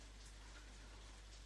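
Steady rain falls without pause at night on October 30, a dense, even hiss of drops pattering on a surface with a low rumble underneath and no voices.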